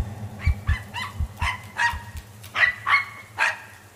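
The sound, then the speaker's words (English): A small dog barks rapidly and shrilly, about eight or nine high-pitched yaps in quick, uneven succession, loud, with no voices present. “That little animal, that small, brave dog, ran right up to the monstrosity, barking its head off with a feeble, high pitched cry.”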